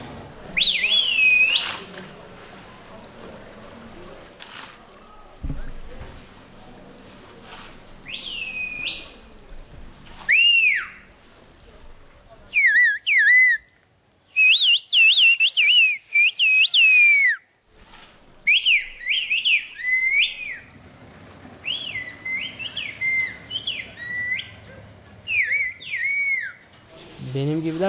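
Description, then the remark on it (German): Loud, piercing human whistles in varied melodic phrases, swooping and gliding up and down, delivered in bursts with short pauses like spoken sentences, over faint outdoor background noise: the Turkish whistled bird language performed by a 16-year-old boy from the village of Kuschköy. “Auch … hat die Vogelsprache in der Vereinsschule gelernt.”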